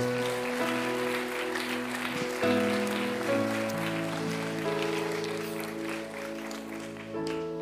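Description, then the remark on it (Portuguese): An audience at a church service applauds the Lord steadily over sustained keyboard chords that shift every second or two, the clapping forming a dense, even patter beneath the music throughout. “Pode aplaudir ao Senhor, meu querido.”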